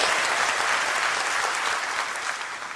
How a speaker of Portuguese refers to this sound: Pode dar salva de palmas sim ao Senhor.